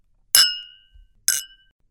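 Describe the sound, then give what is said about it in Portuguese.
Two people raise cocktail glasses in a toast aboard an airplane: two bright glass clinks about a second apart, each a sharp tap with a short ringing tone that fades quickly, with no talking. “levantamos os copos em sua homenagem.”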